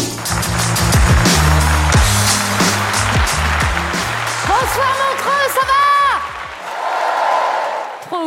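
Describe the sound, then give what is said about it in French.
A large crowd at the Montreux Comedy Festival claps loudly and steadily to welcome the next comedian, with shrill whoops and cheers rising over the applause midway before the noise thins out near the end. “Préparez-vous maintenant à accueillir notre prochain artiste et faites du bruit où que vous soyez pour Elodie Pou.”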